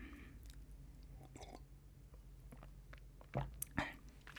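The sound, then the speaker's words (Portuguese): Someone drinks water: quiet lip and mouth clicks, then two distinct gulping swallows near the end, with no talking. “Água. Vou. Pá, vai ter que ser.”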